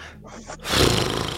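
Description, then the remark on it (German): A single loud, harsh gasp as a speaker who forgot to breathe while talking sucks in air sharply. It follows a brief moment of soft throaty sound and lasts under a second. “ich vergesse heute die ganze Zeit das Atmen.”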